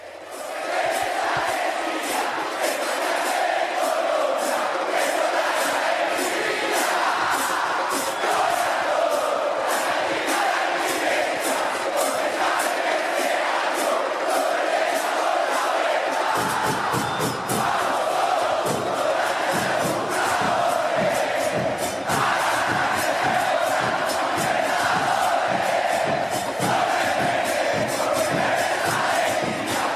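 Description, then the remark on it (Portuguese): A large crowd of Atlético Nacional (Colombia) football fans chants a song together, loud and sustained with a steady rhythmic pulse, voices massed and continuous for the whole stretch, growing fuller partway through. “inspirou a torcida do Atlético Nacional da Colômbia, campeão da Libertadores de 2016.”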